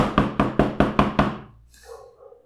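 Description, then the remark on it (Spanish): Six quick, evenly spaced knocks on a hard surface, loud, in a steady rapid rhythm, imitating a table slipping and falling to the floor below, followed by a faint, murmuring tail of background noise. “Se, resbala la mesa y se escucha abajo, güey, así.”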